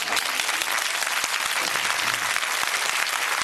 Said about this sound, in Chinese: 要不可劲儿鼓，要不可劲儿鼓掌就别鼓了啊，太累了。